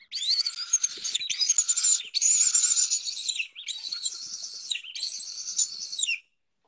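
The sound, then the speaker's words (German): A bird-distress predator call is played to imitate the whimpering of a seized bird: five or so harsh, raspy, high-pitched wails in quick succession, loud, with no talking. “Dann, wenn der Vogel gepackt wurde, auch dieses Wimmern.”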